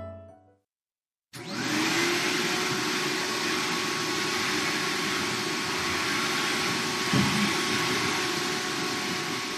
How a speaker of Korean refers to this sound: 청소기 돌아가는 소리가 요란하다. 늘어놓는 사람도 없는데 엄만 하루도 거르지 않고 청소를 한다. 잠시 후 청소기 소리가 멈췄다.